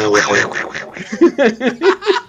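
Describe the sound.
A voice imitates a cartoon duck, a quick string of raspy, sputtering quacks followed by several short, choppy honks in an uneven rhythm, fairly loud.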